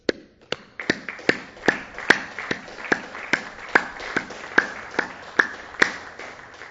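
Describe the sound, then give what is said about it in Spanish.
A crowd applauding migrant compatriots claps together in a steady, evenly spaced rhythm, each sharp clap clearly separated, with no voices over it. “Un aplauso a nuestros paisanos migrantes”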